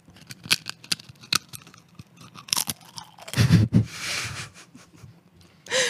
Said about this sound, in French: Ah oui, mais c'est super compliqué en fait d'animer, de manger des chips en même temps. C'est absolument impossible.